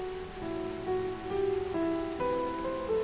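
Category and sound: nature, heavy pouring rain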